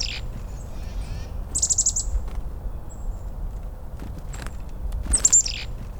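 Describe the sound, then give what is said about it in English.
A chickadee gives its scolding winter call in two short bursts of rapid, buzzy high notes, separated by a few seconds, over a low, steady outdoor rumble. “At no other time of the year are sounds so sharp the scolding winter call of the chickadee”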